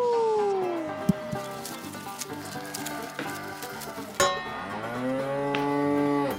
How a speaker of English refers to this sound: Aw, come on! That cow came out of nowhere!